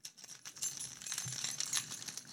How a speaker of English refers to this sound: It's definitely not my keys that I'm jingling against the microphone. It's my climbing gear